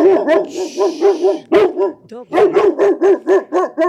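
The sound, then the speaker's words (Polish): A dog barks repeatedly in quick, rhythmic bursts, loud, with a brief pause midway before the barking resumes at a steady pace. “To jest potwierdzenie, to szczekanie, że to nazwisko materialne to nie jest materialne, tylko duchowe.”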